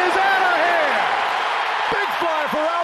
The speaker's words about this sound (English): The crowd cheers loudly, not letting up. Remember, Pujols plays for the other team, the Angels, and at this point hasn't been a Cardinal for eight years. But the crowd doesn't care.